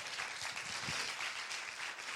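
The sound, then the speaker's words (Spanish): A church audience applauds for Jesus in a dense, steady wash of clapping that holds at a constant loud level throughout, with no voices standing out above it. “¿Por qué no le das un aplauso fuerte a Jesús?”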